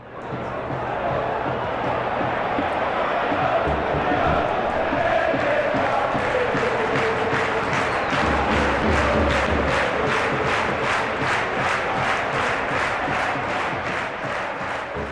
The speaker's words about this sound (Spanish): No te negaré que todos hemos disfrutado con la bola en campo grande, con grandes luces y mucha gente gritando.